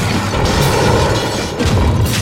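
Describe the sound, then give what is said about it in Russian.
A heavy booming crash as a tower-shaped chess rook on a giant chessboard is struck sideways by the queen's two-handed sword and smashed, with crumbling, rattling debris, loud and dense throughout, with a second impact surge near the end; no one speaks. “Боковой удар по разрушенной башне.”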